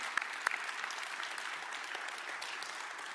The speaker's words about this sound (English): Let's give a round of applause for our impact as we're doing that.